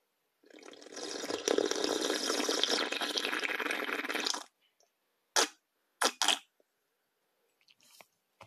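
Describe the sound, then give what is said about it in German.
Fennel tea pours steadily into a cup for about four seconds, clear, followed by a few short slurping sips and swallows in the quiet afterward. “Leute, damit ich gleich nicht wieder huste, trinken wir jetzt schön Fencheltee. ASMR.”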